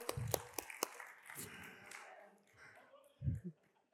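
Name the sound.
audience clapping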